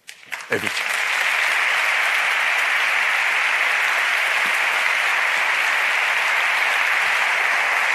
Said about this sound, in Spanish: Y en estos instantes ha concluido el pregón, décima séptima ovación. Ahí termina el pregón de Julio Cuesta. Fortísima ovación, baja del atril.